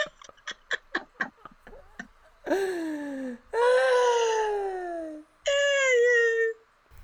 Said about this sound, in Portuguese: Gente, só um minutinho. O passarinho tá gritando.